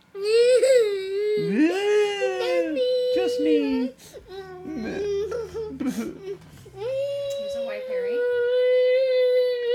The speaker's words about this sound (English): You know what I don't want to do? I don't want to listen to you crying right now.